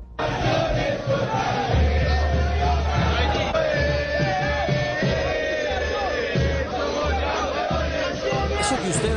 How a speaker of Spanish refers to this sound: Así recibieron a Millonarios en Buenos Aires. El equipo azul arribó al aeropuerto de Ezeiza en medio de cánticos, pancartas, banderas y el afán de los aficionados que pedían fotos y abrazos a los jugadores